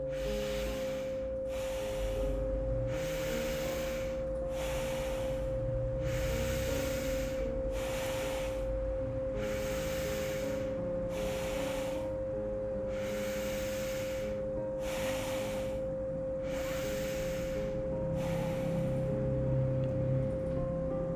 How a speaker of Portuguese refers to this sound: Torne a sua respiração mais intensa. Respire mais forte. Inspire e expire pelas narinas mais forte.